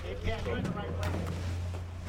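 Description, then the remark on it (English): A boat engine rumbles low and steady as the vessel idles in toward the dock on Delacroix Island, Louisiana, a shrimping outpost, with voices talking faintly over the hum; an old fisherman gets off. “Another boat pulls up to the dock, and this old fisherman nimbly gets off.”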